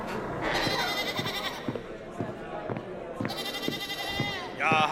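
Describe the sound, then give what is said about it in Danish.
A goat bleats twice, two long, wavering cries separated by a short pause, with a steady soft tapping beneath them. “Øh, betjent Munk, hent en ged til formålet.”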